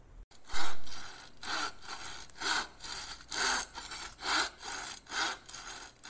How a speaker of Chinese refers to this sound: Who's that? It's Fox. He's chopping wood.